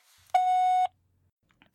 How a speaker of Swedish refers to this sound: Oj, nu ringer det någon på andra linjen här. Hej med dig!